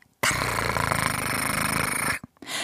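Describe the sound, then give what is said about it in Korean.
A loud, rapid fluttering whir of an ATM counting banknotes runs steadily for about two seconds, cuts off abruptly, then a short second burst begins. “오늘의 정답은 ATM이 현금 세는 소리였습니다”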